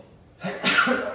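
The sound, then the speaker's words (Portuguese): A single sharp sneeze: a quick intake of breath followed by an explosive, breathy burst that trails off, with no talking. “Saúde aqui, né?”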